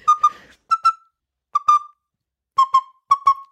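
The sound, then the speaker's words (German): Someone whistles short, bright peeps in quick pairs, five pairs spaced by brief pauses, clear with no talking, imitating a small bird's peeping. “Und das äh, Piepen, wie wäre das dann gemacht?”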